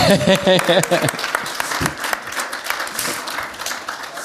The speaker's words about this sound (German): Ein Applaus